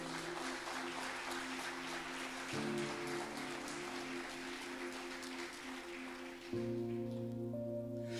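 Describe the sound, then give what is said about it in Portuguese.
An audience claps steadily to applaud the Lord, a dense, continuous wash of applause, while sustained keyboard chords hold underneath and shift to new harmonies twice. No one speaks. “Se assim você crê, aplauda o Senhor, querido.”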